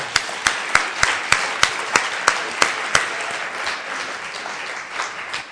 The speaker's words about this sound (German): Also bitte nochmal einen besonderen Applaus.